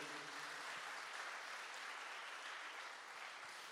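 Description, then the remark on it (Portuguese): A church audience claps in praise of God, a dense, continuous wash of applause that holds at an even level for a few seconds with no voices heard over it. “Se você crê na ressurreição do último dia, exalte Ele com a linda salva de palmas, com glória a Deus e com aleluia.”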